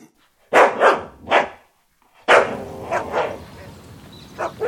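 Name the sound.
dogs barking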